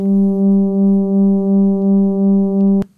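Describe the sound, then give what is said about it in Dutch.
A steady, monotone low drone from the sonified vibration of a star showing the Blasco effect, sped up, with stacked harmonic overtones and a slow rhythmic swell in loudness, holding for nearly three seconds before stopping abruptly with a faint click. “je hebt een ster die, die, die trilt. Dus en die trilling die brengt al een, een toon voort. Maar die toon, ja, die toon hebben we versneld.”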